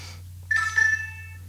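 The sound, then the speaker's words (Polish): Two short electronic notification chimes from an Xperia Pro phone running Android 4.0, signaling incoming emails and SMS messages, in quick succession, bright and tonal with a high pitch, over a steady low hum; no one speaks. “tak, właśnie dochodzą jakieś tutaj maile, SMS-y, tudzież nie wiem co tam jeszcze.”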